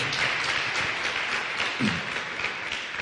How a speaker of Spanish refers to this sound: Un aplauso a nuestro sanador, a nuestro Dios.